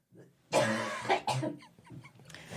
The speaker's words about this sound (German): Ich habe ein bisschen Angst, dass du dabei ohnmächtig wirst, wenn du so hustest.